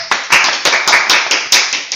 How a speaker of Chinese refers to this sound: 那我们现在就掌声欢迎李志宏老师。